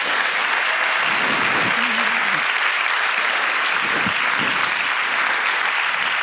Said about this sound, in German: Ja, du, du hast recht, muss ich mal klatschen.